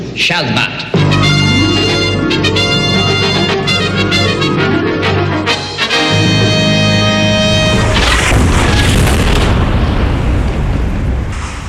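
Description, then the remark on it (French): Loud, sustained tonal music plays, then a powerful bomb explosion bursts in, leaving a roaring, rumbling wash of noise that lingers to the end. “Alors, quand la bombe a explosé”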